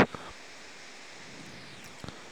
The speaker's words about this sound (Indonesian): Sorry kalau ada suara hujan karena ini saya rekam saat hujan.